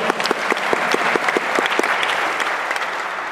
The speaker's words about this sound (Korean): 와, 박수.